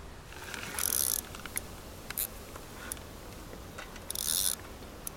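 A fishing reel on a small boat cranks in line in two short bursts of fast ratcheting clicks, pulling up a rig that brings a thick clump of water plants aboard, with scattered single ticks between them over a low, steady background hum.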